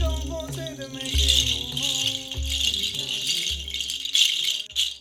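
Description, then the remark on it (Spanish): A rattle is shaken steadily in continuous bursts, moved by the listener's legs and back and around the head, its bright, dense clatter over a low sustained drone and soft tonal background. “cerca de ti, por tus piernas, llegando a tu espalda, haciéndola sonar alrededor de tu cabeza. Ese sonido te conecta más”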